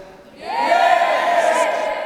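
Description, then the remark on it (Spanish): A crowd shouts and cheers in a loud, sustained roar that swells after a quiet start and holds steady, many voices blending into one continuous yell. “Con ese júbilo, con esos gritos, con ese ánimo de cada uno de ustedes.”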